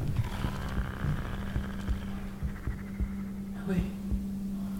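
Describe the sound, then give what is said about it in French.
A low, sickly growl drones steadily close by, a sustained moaning tone with faint rising wails, while soft rhythmic thuds pulse underneath like a slow heartbeat. “Vous pouvez l'entendre grogner à présent, très bas, mais toute proche, comme un gémissement malade qui vous tétanise.”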